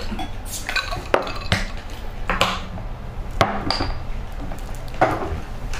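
Glasses clink together again and again in a toast, a quick, irregular series of bright, ringing taps over a low background murmur.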